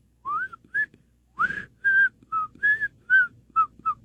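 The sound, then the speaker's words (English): Someone whistles a short, bouncy melody of about nine clear notes, mostly even in rhythm with a brief pause, moderately loud, with no talking. “Uh, coming in at number 10 is a good old whistle.”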